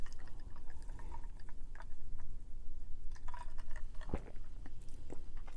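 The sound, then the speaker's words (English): Quiet slurps and small wet mouth noises of someone sipping a drink, with soft clicks and one sharper gulp-like click partway through, no talking. “Take another sip here.”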